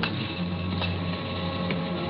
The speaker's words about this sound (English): Only a funny sound that I couldn't identify. A peculiar humming, and there was a smell. Chlorine. Yeah, chlorine. Now I knew uh, where I was an indoor pool. The hum was the filtering machinery.